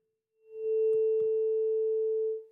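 A tuning fork rings with a steady, pure tone at A440, holding evenly for about two seconds before fading. A couple of soft thumps or handling noises appear early on.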